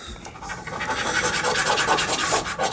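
Steady, brisk scratching of scratch-off lottery tickets, a continuous raspy rubbing with quick repeated strokes and a bright, papery hiss, fairly loud with no talking over it.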